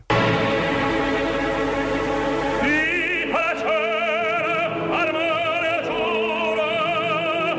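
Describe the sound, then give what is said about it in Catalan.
Dramatic operatic music from the oath duet of Otello, in which Otello swears an oath together with Iago: a loud, full orchestra sustains a tense passage, then powerful singing voices with wide vibrato enter partway through, soaring over the accompaniment. “I és aquesta música brutal que sona així.”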